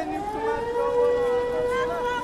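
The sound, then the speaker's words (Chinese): An air raid siren in Kyiv wails steadily, a sustained tonal drone with a slowly wavering pitch and layered harmonics, loud and continuous throughout with no voices. “然后呢，号召民众呢找避难所啊，全天都是航空警报。”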